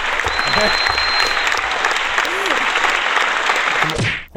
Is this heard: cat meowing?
no